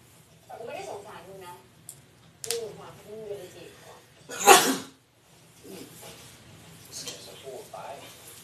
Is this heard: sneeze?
yes